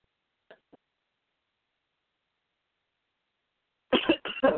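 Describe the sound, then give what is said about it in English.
A couple of faint, short throat sounds, then after a pause a loud fit of three harsh coughs in quick succession from a person with a cold, with no talking. “cough and hope whatever is coming up will eventually reveal itself.”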